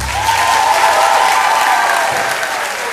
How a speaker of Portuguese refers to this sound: Pronto! Palmas!